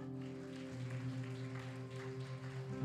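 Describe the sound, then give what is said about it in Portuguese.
A church audience applauds the Lord in a morning service, a steady, dense patter of many hands, fairly soft beneath sustained, droning keyboard chords that hold throughout the few seconds. “Você pode aplaudir ao Senhor nesta manhã?”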